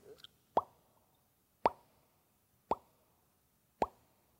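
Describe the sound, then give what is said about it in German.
Four evenly spaced, hollow plopping drips made with the mouth to imitate a dripping kettle, each a short wet pop about a second apart, quiet with silence between them. “Es ist der tropfende Kessel.”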